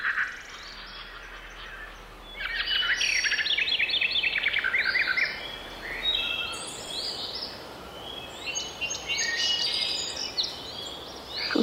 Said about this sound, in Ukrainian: Ну там чорноголова кропив'янка, а тут була якась розборка між птахами, якийсь скандал.